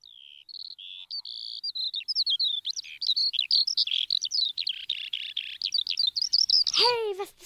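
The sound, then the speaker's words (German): A skylark sings a long, continuous outpouring of rapid, high warbling trills and chirps, clear, with no other voices, over meadows in the very early morning. “Silvia Schreiber ist in aller Herrgottsfrüh über die Wiesen gestrolcht, um eine Lerche zu belauschen.”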